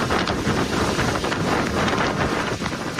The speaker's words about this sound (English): A punishing storm dropped rain on parts of Florida and is now moving up the East Coast